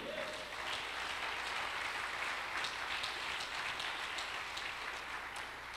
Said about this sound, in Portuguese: Você pode aplaudir a ele ou não?